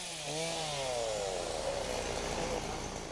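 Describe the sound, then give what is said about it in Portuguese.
A chainsaw used by firefighters to remove a fallen tree blocking a road revs up with a rising whine, then settles into a steady, loud buzzing grind as it cuts through the wood, continuous throughout. “Uma árvore caída atrapalha a passagem das equipes pela estrada. Os bombeiros precisaram agir para retirar o obstáculo.”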